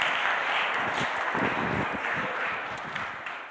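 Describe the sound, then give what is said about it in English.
An audience claps steadily for a few seconds for two people who portrayed God and Jesus, a dense, even wash of applause that stays loud throughout and tapers only slightly at the end, with no voices heard over it. “Give these guys a round of applause.”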